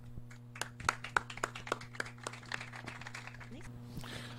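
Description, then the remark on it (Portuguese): An audience applauds after a talk with scattered, uneven claps that patter across the room, moderately loud, over a steady low electrical hum. “Vocês podem aplaudir até com mais ênfase no final, porque eu estou trazendo um e-book.”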